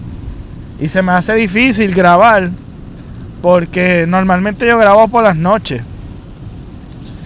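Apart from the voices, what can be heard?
rain heard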